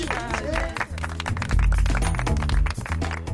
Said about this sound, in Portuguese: E é com este aplauso que chegamos ao fim da radionovela A Nossa Língua, A Nossa Terra,